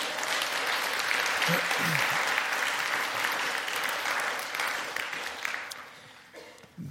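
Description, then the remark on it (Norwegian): Sustained applause from an audience for the worship band, a dense steady patter of clapping that stays loud for several seconds before thinning out near the end. “Skal vi gi dem en liten applaus?”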